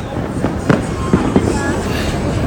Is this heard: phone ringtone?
no